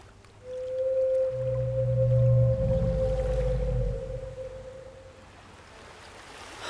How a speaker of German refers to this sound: Das muss das Geräusch sein, von dem uns die Barkeeperin in Crosshaven erzählt hatte. Es klingt wirklich wie ein Ungeheuer. Es kam von dieser Richtung.